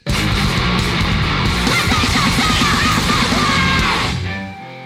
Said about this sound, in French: c'est juste que moi ça m'éclate de voir des morceaux comme ça de 5 secondes